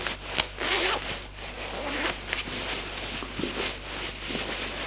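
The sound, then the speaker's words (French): A clothing zipper is pulled in several quick, rasping strokes as a woman undresses, fairly loud, with faint rustling and a low steady hum underneath. No one speaks. “se déshabille”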